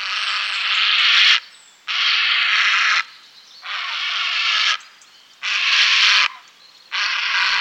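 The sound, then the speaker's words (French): A heron perched on its nest, calling to females, gives a series of harsh, rasping calls, five long grating bursts in steady succession with short pauses between, loud, with no other sounds around them. “Posté sur son nid, il appelle les femelles. Il pousse des cris rudes, râpeux et persistants de jour et même parfois de nuit.”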